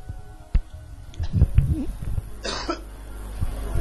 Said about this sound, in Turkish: Ee, öksürük e, aslında öksürük hakkında ne diyebiliriz? Boğazın resmen ajitasyonu olabilir yani.